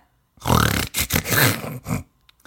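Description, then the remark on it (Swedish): A voice imitates loud, rasping old-man snoring from someone who fell asleep lying on their back while listening to an audiobook, a few harsh, throaty snorts in quick succession, the first long and the rest shorter, then quiet. “Jag ligger ju och sover och snarkar, alltså riktigt gubbsnarkar och det har gått tre minuter av, av boken jag lyssnat på”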